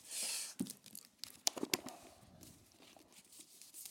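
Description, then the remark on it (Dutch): A sheet of paper is turned: a soft swish followed by a few crisp crinkles and light taps as the page settles, with no one speaking. “Wacht, oh, enkel een bladzijde omgeslagen, denk ik.”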